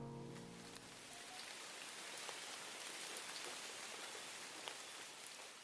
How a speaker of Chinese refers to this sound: 从一大早就下起雨来，下雨本来不是什么稀罕事儿，但这是春雨。